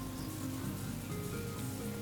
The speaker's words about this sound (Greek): και χώθηκαν μέσα στα σύννεφα και τότε άρχισε μια γερή βροχή